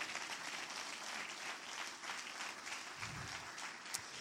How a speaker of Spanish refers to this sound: Si alguien lo cree, den un aplauso fuerte a Jesús.